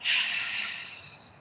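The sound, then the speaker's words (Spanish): A single strong breath pushed out through the mouth after holding the breath during a breathing exercise, breathy, starting with a sharp rush of air and trailing off gradually over about a second and a half, with no talking. “Sostenemos la respiración y cuando ya no podamos más, vamos a exhalar por boca, soltando.”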